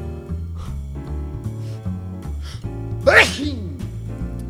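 A single sharp, loud sneeze bursts out, rising through a quick breathy pitch sweep, over a steady background of music.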